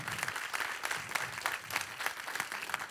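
An audience applauds loudly for God, a dense, steady wash of many hands clapping with bright crackling bursts throughout, no voices rising above it.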